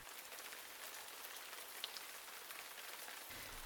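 Steady rain falls continuously, a dense hiss of countless drops pattering on a surface, even in loudness throughout, with no voices present.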